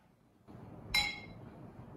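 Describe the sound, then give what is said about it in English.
Two ounces of Union rye whiskey poured into a mixing glass for a cocktail: a steady low splash and rustle starts, then a single bright glassy clink rings out, with the pour continuing quietly after. “Add that to our mixing glass.”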